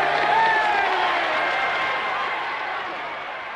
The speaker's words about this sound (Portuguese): A multidão, aos gritos e aplausos, mal podia acreditar.